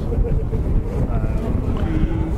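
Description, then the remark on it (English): The fourth rally car roars past at speed at Elfyn's Corner on Wales Rally GB, its engine a loud, steady low rumble with a wavering higher whine, mixed with gusty wind buffeting the microphone. “Fourth car, rather. I've lost count.”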